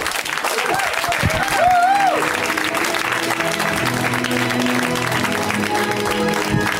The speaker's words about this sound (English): Game seven. Everyone stops clapping.